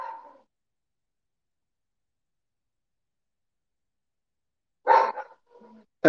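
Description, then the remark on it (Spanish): Dogs fighting outside bark and snarl: a short burst at the start, a long quiet gap, then a rough flurry of barks and growls near the end. “Pinches perros, güey. Se andan peleando allá afuera, Dios mío, güey.”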